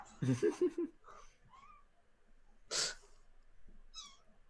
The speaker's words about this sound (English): The seagulls, I can hear them.